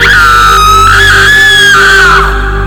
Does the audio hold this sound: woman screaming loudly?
yes